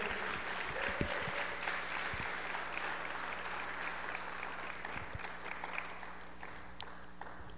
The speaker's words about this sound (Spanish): ¿Alguien puede dar un aplauso fuerte al Señor? Sé que puedes hacerlo más fuerte, aplaude al Señor.